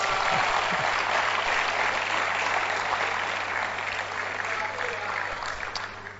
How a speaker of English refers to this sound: Thank you all for coming tonight and it's, you know, raining and all that, but you made it. Clap for yourselves.